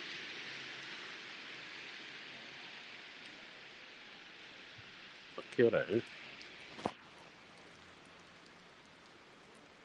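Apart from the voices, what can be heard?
heavy rain falling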